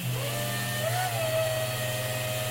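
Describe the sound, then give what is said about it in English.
A small electric shower water pump, switched on as soon as the shower water runs, hums steadily with a low, constant drone and a faint whine that rises and settles, pumping the bathwater out into the bushes in the front yard, running without pause and with no voices. “Now, when I uh, take a shower, as soon as the shower water goes on, I turn the pump on”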